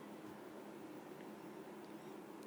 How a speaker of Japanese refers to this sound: ちょっとエアコンの音がうるさいかな、ちょっとまだ寒い日がありますからねはいちょっと静かになるかなはいちょっと静かになりましたね少しだけ